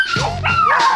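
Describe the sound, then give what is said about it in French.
A dog, Pompidou, gives two quick, high-pitched barks that slide into a whiny, almost sung tone, loud with no voices around it. “Euh, mais que ça t'empêche pas de continuer à chanter, hein, Pompidou.”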